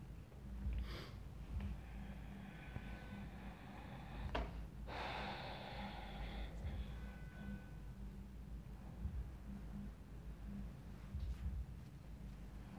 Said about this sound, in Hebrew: לקחת כמה נשימות מלאות, עוד לסייע למודעות להתייצב כאן.